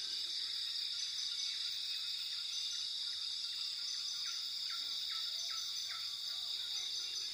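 Steady rainforest ambience: a dense, continuous high buzz of insects with a row of faint, evenly spaced bird chirps drifting through, all unbroken with no voices.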